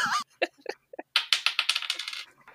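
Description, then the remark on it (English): Dice are rolled onto a table during a tabletop role-playing game, with a few scattered clicks followed by a quick burst of rattling, bouncing impacts that gradually die down. Fairly loud, with no voices. “Go ahead and roll for act under pressure.”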